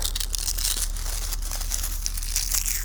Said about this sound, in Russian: вот, листья сухие, они шуршат.